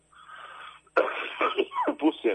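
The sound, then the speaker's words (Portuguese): A breathy, wheezy intake is followed by a burst of loud coughing, several rough hacks and throat-clearing sounds in quick succession. “Desculpa, eu tossi aqui agora.”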